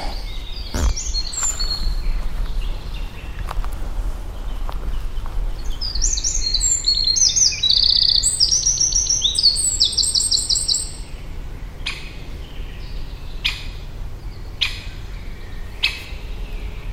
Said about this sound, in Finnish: Siinä on se käpytikka.